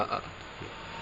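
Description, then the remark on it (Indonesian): A short, breathy hiss of someone drawing on a liquid vape, a soft airy rush lasting about a second with a slight gurgling low crackle underneath. No one speaks. “ini suara sacet-sacet ini karena apa-apa loh ini. Vape ini.”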